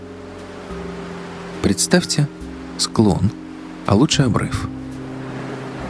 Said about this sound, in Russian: Уже некоторое время на фоне воет ветер, это звукорежиссер помогает вам мысленно оставаться в горах.